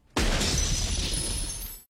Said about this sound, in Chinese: 小声的喊叫伴随着冲破玻璃的声音，一同传进我的耳朵。